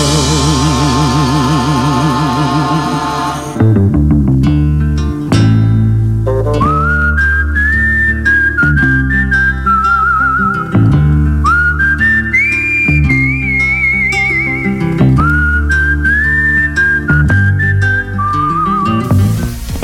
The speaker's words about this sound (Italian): Abbiamo ascoltato, lo chiamavano Trinità di …, meraviglioso, cult.